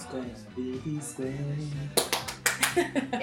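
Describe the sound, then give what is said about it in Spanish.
A voice talks or laughs, then a quick run of about five or six sharp hand claps rings out, fairly loud, with some voicing continuing underneath. “aplausos. no los hiciste bien.”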